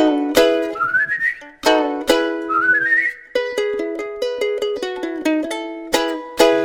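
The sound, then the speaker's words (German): A whistled bird lure call: bright, piping notes with sharp attacks, quick rising trilled runs, then a string of short repeated tones, loud and alone with no voices. “La, la weiß mit dem Locken umzugehen und mich aufs Pfeifen zu verstehen.”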